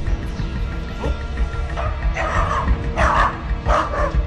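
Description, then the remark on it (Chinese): A police dog from a police canine unit, brought in to track suspicious footprints and scent, barks in a quick, uneven series of four or five loud, rough barks over a steady low background rumble, with no voices. “一旦发现有可疑的鞋印，相关的嗅源，我们都会通知警犬中队前来进行追踪。”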